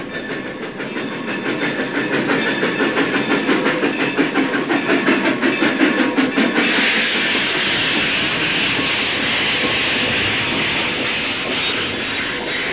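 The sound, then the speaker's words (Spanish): A train rolls steadily along the rails, its wheels beating a quick, regular clickety-clack over a loud, broad rumble that later smooths into a continuous hissing roar. No one speaks. “A las tres horas de nuestra partida, el tren se detenía en Kiel, a dos pasos del mar.”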